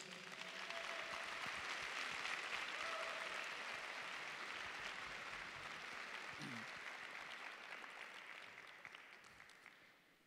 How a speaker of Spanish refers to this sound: Pues dale un fuerte aplauso a Jesús.